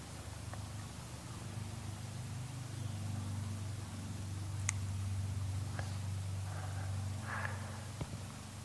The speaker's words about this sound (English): The distant sounds, traffic.